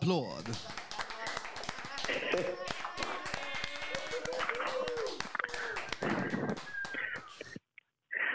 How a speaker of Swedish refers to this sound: Ska vi köra en applåd? Då kör är du med då? Nu kommer en eh, rungande, sjungande applåd.